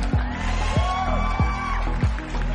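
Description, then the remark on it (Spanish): A crowd applauding and cheering steadily with whistles rising above the clapping, while deep thumps pulse at a regular beat underneath. No one speaks. “Vamos a hacer un aplausito por ahí porque hay gente por aquí ya en el chat.”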